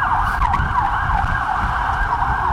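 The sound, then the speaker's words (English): A tinny electronic ice cream van chime in Stratford plays a looping, warbling melody in a steady mid-high pitch. It is fairly loud, over a low rumbling engine or traffic hum, with no voices. “Stratford, of course, famous for having ice cream vans with the worst uh, musical tones ever.”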